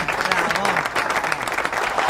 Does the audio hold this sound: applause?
yes